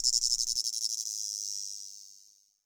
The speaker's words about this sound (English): At some point, I realized that the only thing I could hear was the chorus of cicadas and that my right leg was quivering impatiently.